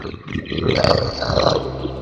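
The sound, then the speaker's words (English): A voice imitates a monster's snarl: one sustained, raspy growl lasting about two seconds, fairly loud, rough and throaty with a slight rise in the middle. “The the torch begins illuminating, and you kind of see what looks like a what looks like a wall essentially, or like a solid surface, and it hits and drops, and you hear a snarl,”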